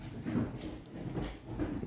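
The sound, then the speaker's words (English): Soft, irregular thumps and scuffling of cats running around on a hardwood floor, somewhat muffled, with no voices. “I got cats running around on hardwood floors, fucking with me.”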